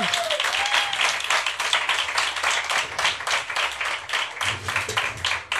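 A crowd applauds a band's guitarist loudly and steadily, a dense wash of many hands clapping that fills the whole stretch without letting up, with a brief whistle early on.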